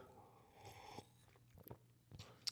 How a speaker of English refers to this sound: So with that, I will have my last sip of my my my bourbon here.